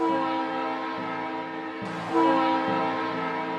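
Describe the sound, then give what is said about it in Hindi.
A loud train horn blares in two back-to-back blasts from a moving train, the second louder and brighter, its steady chord-like tone ringing out with a low rumble beneath. “सब कुछ पहले जैसा हो गया कि तभी ट्रेन ने फिर दो बार हॉर्न बजाया”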